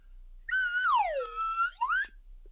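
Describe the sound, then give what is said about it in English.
A slide whistle plays alone, its tone swooping down, holding a low note, then gliding back up, a single bright two-second phrase, blown to get people's attention at the start of a presentation. “I have a slide whistle.”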